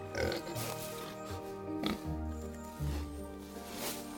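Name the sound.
pigs oinking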